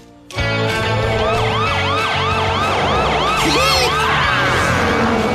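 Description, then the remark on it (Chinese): A police car siren wails in repeating rising and falling sweeps, loud and steady, starting abruptly after a brief quiet moment and layered over a low engine rumble. It is Archie's fast police car, driving to a sheepdog contest. “我知道谁有一辆开得很快的警车。”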